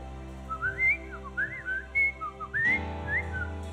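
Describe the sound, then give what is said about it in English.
A person whistles an imitation of a bird call: a string of quick, rising and falling chirpy notes in short phrases, clear over a steady low hum, with no talking. “And I begin to hear a bird”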